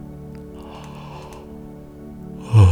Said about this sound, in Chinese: 但是啊，如果听到打哈欠的，会不会也跟着打哈欠？也跟着累了起来呢。让我们试试看吧。